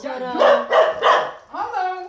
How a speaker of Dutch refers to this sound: Nou, dit is de hond. Die me altijd heel eh, goed eh, begroet.